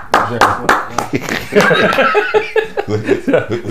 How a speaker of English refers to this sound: Round of applause. Let me hit the button. Round of applause.